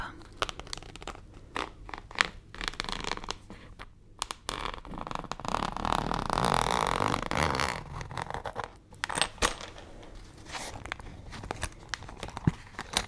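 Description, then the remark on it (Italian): A pencil case zipper is drawn open slowly, a long rasping pull in the middle, surrounded by small clicks, handling rustles and light crinkling, with no one talking. “Apriamo la zip”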